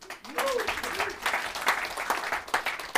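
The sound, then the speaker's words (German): An audience applauds steadily, a dense wash of many hands clapping for about three seconds, with a brief whoop or cheer rising near the start. “Und by the way noch einen Applaus”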